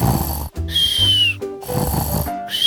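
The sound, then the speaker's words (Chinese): A person imitates snoring with a few loud, rough snorts separated by short pauses, each a low rattling rasp with a brief whistly edge in one breath. “打呼就是有些人在睡觉的时候会发出像这样子的声音”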